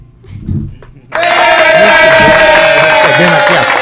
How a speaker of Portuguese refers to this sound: A Rádio Tabajara tem uma opinião, viu? Ela aplaude quando acha que tem que aplaudir.